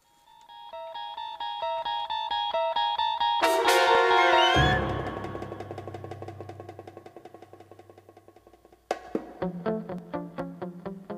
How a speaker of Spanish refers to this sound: Te voy a hacer una pregunta, pero es que tengo que ponerte la musiquita que te pongo. ¿eh? Ponme la musiquita.